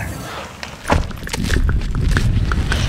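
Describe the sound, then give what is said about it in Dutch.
Steady footsteps crunch along an outdoor path at a walking pace toward a grave behind a church in the middle of Volendam, by the dike, with low background rumble and no talking. “Wij lopen nu naar eh, het graf.”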